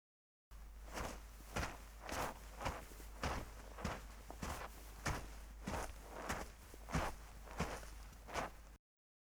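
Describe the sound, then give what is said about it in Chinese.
A sound effect of steady footsteps, around a dozen crunchy, scuffing steps at an even walking pace, heard alone with no talking and a faint low rumble underneath. “走路的声音， 走在 就是 你脑海中的场景 不是走 什么？”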